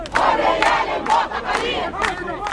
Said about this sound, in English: Demonstrators gather at the gate of Qasr al Ittihadiyya, one of the presidential palaces on the outskirts of Cairo.